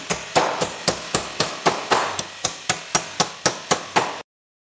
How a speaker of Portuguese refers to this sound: O pedreiro começou a dar martelada no vizinho aí, seja de vocês, seja aqui.